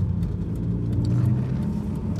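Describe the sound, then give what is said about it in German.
Steady low rumble of a car interior while driving a detour around busy motorways in North Rhine-Westphalia, Germany, in the early evening in autumn, a constant engine and road drone at moderate loudness, with faint higher hiss from tires and wind. “Ähm, ich sitze gerade im Auto”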